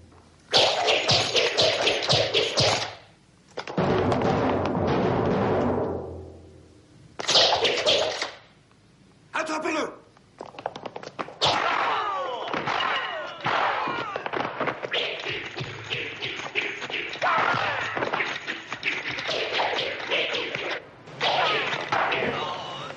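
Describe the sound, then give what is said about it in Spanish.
Rapid nunchaku (chaco) swishes whip through the air as it strikes across the back, the neck and under the leg, mixed with sharp punch impacts and thuds in loud, dense bursts, broken by a few brief pauses, with no talking. “Eso es el de un, de un chaco haciendo, por la espalda, el cuello y la espalda y, bajo la pierna.”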